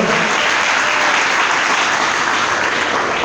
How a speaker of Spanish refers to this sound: Denle el aplauso a Jesús esta noche, por favor.